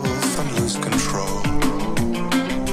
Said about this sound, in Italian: Lo senti lo snare in sottofondo? quelle legnate secche che ti arrivano sul polpastrelli.